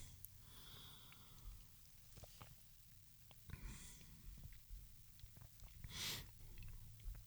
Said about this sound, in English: Uh, so I'm going to give that a quick second opinion sip.